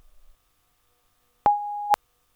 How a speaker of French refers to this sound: Si je réponds pas, c'est que je dois être au boulot, mais laisse-moi un message après le bip.